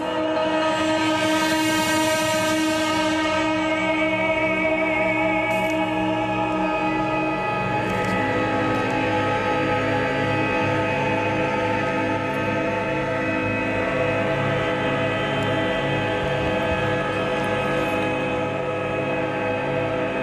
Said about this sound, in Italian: quando ci sono queste fasce estremamente statiche sono i momenti in cui appunto il coro canta l'inizio della poesia di Neruda